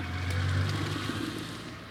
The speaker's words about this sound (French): Nous allons laisser passer une voiture, peut-être un autre monument, une Twingo verte